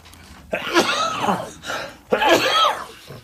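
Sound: coughing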